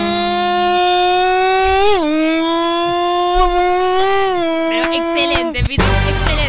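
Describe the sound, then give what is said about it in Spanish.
A voice imitates a Formula 1 racing car: one long, loud, buzzing engine whine held for several seconds, dipping and climbing in pitch, then breaking off into sputters at the end. “Tu gag, tu gag. Los autos de Fórmula 1.”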